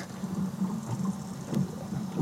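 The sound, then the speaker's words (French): Underwater hydrophone recording of spotted dolphins, leaping about in a frenzy, making low buzzing pulses and a sharp click, heard against a steady wash of water and boat noise. “comment les dauphins communiquent entre eux. C'est magique. Ça, ces petits buzz là, ça peut être de la communication.”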